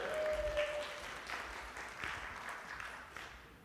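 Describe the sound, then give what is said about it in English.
An audience applauds to give a shout out to two people, a dense patter of many hands clapping at once, steady for a few seconds before slowly thinning out. “Let's give them a couple claps here.”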